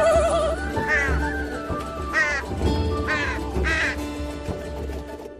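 A crow caws four times in harsh, raspy calls spaced about a second apart, loud, over a steady low background hum.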